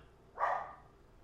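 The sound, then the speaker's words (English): A single muffled bark from the speaker's dog, a short burst that fades quickly into quiet. No one speaks. “Now, do you hear my dog back there?”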